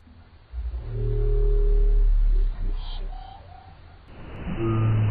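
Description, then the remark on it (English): Several whales sing underwater in the Mariana Trench, picked up by a hydrophone lowered into the trench: long, moaning tones that overlap, some low and droning, others rising into higher wavering calls, with a hollow hydrophone hiss beneath and no voices. “These are the songs of multiple whales in the ocean.”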